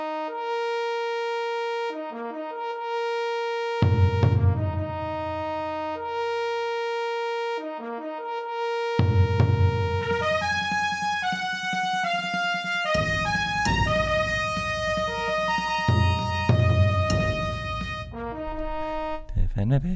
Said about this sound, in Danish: Så jeg tænker, at vi holder den her. Og så øh, hører vi videre efter den her lille jingle.